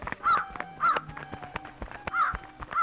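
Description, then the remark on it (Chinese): A crow caws four times, in two pairs of harsh, raspy calls separated by a short pause, with scattered clicks and rustling underneath and no voices. “奸细乌鸦接到命令后，立刻出发了。”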